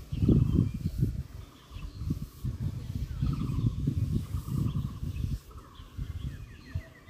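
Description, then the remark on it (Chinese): Loud, gusty wind buffets the microphone in low rumbling bursts that swell and drop throughout, with faint bird chirps faintly audible above the rumble. “这样的风声其实录音并不是很合适。”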